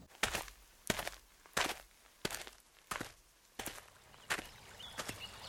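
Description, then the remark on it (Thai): Steady footsteps of a young man walking back to the water's edge to find a little fish, about eight crisp, evenly paced unhurried steps, clear with no voices over them. “เมื่อชายหนุ่มได้ยินดังนั้นจึงตัดสินใจเดินกลับไปที่ริมน้ำเพื่อหาเจ้าปลาน้อย”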